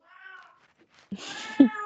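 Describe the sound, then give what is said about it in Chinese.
A cat meows twice: a soft, thin first call, then after a pause a louder, longer and rougher meow with a sharp onset. No one speaks. “好配合的猫。”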